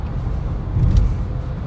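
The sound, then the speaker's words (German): Steady low road rumble of an electric car accelerating to 120 on a motorway, heard from inside, with a brief swell in the low hum partway through and no one talking. “Ja, also wir beschleunigen schon schneller als alle anderen drumherum. Ja, auf 120.”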